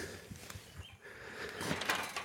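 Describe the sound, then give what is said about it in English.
A cockerel gives a faint alarm call, a few sharp, strained clucks and squawks rising near the end over a steady outdoor background hiss, warning his flock of hens because a cat is prowling around the chickens. “Now, the reason the uh, cockerel just made that noise is because one of my cats is prowling around uh, at the moment very interested in the chickens, so he's on guard.”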